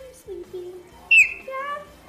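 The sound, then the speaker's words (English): Clouded leopard cubs squeak in a run of short, tonal cries, with one sharp, shrill squeal in the middle and a longer wavering squeak after it. “They squeaky.”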